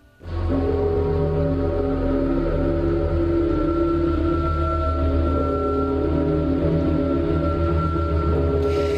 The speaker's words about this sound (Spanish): sintonía, con un alarido, con unas campanadas, un poco tremendo. Hmm. Era un programa que se llamaba Al otro lado. Efectivamente, es un programa eh, del año más o menos, esta emisión eh, es, aproximadamente del año 1975.